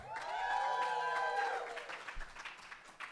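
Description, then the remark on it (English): An audience breaks into loud cheering on the host's request, as a practice run: high whooping voices rising and fading, mixed with a patter of clapping that continues more raggedly for about three seconds. “when i do declare a winner if you agree with me i want you to cheer give that a shot right now”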